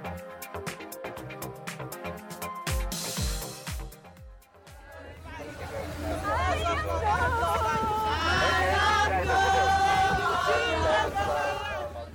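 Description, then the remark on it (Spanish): A short rhythmic music passage gives way to a group of women, just rescued in the Mediterranean by volunteers of the organization Proactiva Open Arms, singing together with emotion, their wavering voices rising over crowd chatter and a low steady engine-like hum. “Escuchamos parte del emocionante canto de un grupo de mujeres tras ser socorridas en el Mediterráneo por voluntarios de la organización proactiva Open Arms.”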